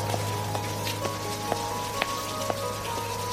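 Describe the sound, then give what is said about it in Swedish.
Steady rain falling, a dense hiss with scattered sharper drops tapping irregularly, over a low constant hum. No voices. “Nu går du här i regnet, rädd för en oviss framtid som du inte kan förutse.”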